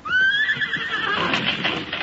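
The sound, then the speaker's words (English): A horse pulling an empty trap lets out a loud whinny that rises sharply and then trails into a quavering, breathy tail, with faint rustling or hoof-like movement underneath. “Quick, man, stop the horses. Stop the horse! Whoa there, whoa, whoa, you brute.”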